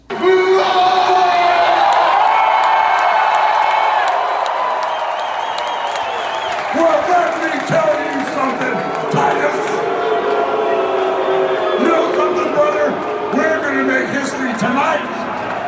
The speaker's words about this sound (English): it was crazy because you heard them cheer Titus and then you heard them boo Hogan. And I w- was like, wait a minute, are they booing Hogan? Then Titus would talk and then you would hear cheers and then Hogan would talk, and you would hear boos